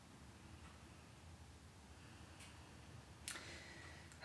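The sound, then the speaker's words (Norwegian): A fire crackles softly in a fireplace, with a few scattered pops and snaps over a steady low hiss. The sharpest crack lands near the end. No one speaks. “Jeg kan høre at det brenner i peisen.”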